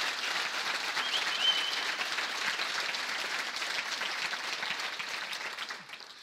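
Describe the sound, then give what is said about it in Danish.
A live audience applauds steadily after presentations, a dense patter of many hands clapping at once that holds for several seconds before thinning out near the end. “at der er et live publikum her lige nu. Så, så ved jeg ikke, om vi lige skulle prøve at bare lige give en hånd til”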